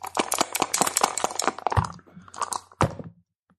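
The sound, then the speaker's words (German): Dice, including an eight-sided die, rattle and clatter rapidly inside a cup, a dense burst of hard clicks for about two seconds, followed by a few scattered knocks and a final sharp clack as they land, rolled for an attack and its hit points. “Und das wäre dann ein W8. Und den schmeiße ich jetzt auch gleich mit rein ins Becherle, damit ich dann gleich weiß, äh, wie weit wir denn treffen oder wie viele Trefferpunkte wir denn dann machen.”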